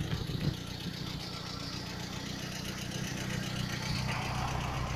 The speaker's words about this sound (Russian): Грузчики специального назначения. Газель подъезжает.